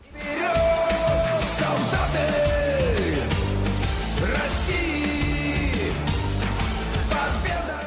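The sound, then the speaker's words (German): Thousands of spectators and claqueurs at Luzhniki Stadium in Moscow roar and cheer continuously at a colorful patriotic revue, a dense wall of voices with occasional shouts, while sliding tones and music-like sounds ring out over the noise. “Tausende Zuschauer und Klaköre jubeln im Luschniki-Stadion einer knallbunten Revue zu.”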